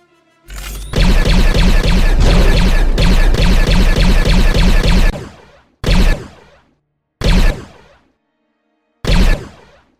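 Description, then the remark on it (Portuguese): Blaster shots pound a spaceship hull in a loud, rapid barrage of metallic impacts, then three separate heavy hits follow at spaced intervals, each decaying quickly. No voices. “começa a escutar os tiros de blaster na fuselagem da nave.”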